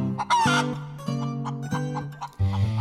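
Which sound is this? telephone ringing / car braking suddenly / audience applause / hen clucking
hen clucking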